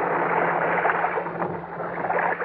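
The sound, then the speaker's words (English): Steady churning and splashing of water as a swimmer surfaces, fairly loud, with a continuous gurgling wash throughout and no voices. “I swam back up to the surface with it.”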